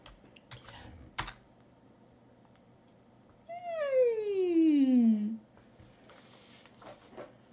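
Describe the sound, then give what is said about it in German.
A man types on a computer keyboard in scattered, fairly quiet clicks, broken midway by a long, loud, falling meow-like whine before the tapping resumes. “Er tippt es ein.”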